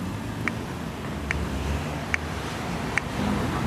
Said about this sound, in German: Die bessere Variante ist natürlich ähm, das herkömmliche barrierefreie Ampelsystem zu nutzen, dass eben dieses Klicken hier, was man hoffentlich hört